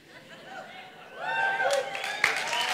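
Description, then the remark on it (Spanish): An audience breaks into applause and cheering for the pastor partway through, a dense wash of clapping mixed with raised voices and chatter that grows louder and stays steady to the end. “Dale, no, aplauso.”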